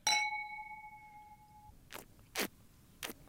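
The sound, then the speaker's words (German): Wine glasses of Steinberger wine clink together in a toast, a bright ringing chime that hangs and slowly fades, followed by a few soft, brief rustling swishes. No one speaks. “Prost.”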